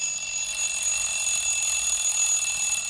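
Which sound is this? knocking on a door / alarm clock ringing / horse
alarm clock ringing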